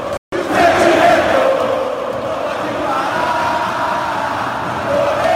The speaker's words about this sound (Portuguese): O torcedor do Vasco, de qualquer lugar do Brasil, sabe que o apoio ao time, nesse momento, é fundamental. E como diz a música cantada nas arquibancadas, o sentimento não pode parar.